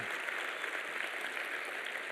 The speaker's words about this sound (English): Some of them, many of you perhaps, were here until 2 o'clock in the morning putting all this back together. Let's give them a round of applause and thank them for that, all right?